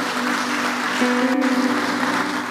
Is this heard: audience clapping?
yes